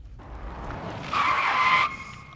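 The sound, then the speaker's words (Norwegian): A car driving in city streets brakes hard as another car comes from the right, its tires letting out a loud, sustained screech that rises over rumbling road noise, then cuts off abruptly after about a second as the vehicle stops. “Kjørte litt for fort, kanskje, og der kommer det en bil, og så mm. bare bråbremser han.”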